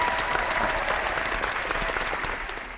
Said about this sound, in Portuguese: Merece a salva de palmas, correu a São Silvestre com a camiseta do Por Falar em Corrida.